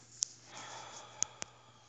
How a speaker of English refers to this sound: Another deep breath, breathing in, breathing out.